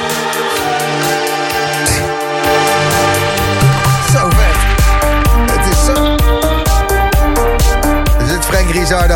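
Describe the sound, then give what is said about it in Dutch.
An electronic dance track plays loud and full, building from layered synth tones into a pounding four-on-the-floor kick with crisp hi-hats after a few seconds. No one speaks. “hij heeft hem echt nog naar next level getild, zoals je nu hoort. Dit is echt wat hij ermee heeft gedaan, is echt, dat kan alleen hij.”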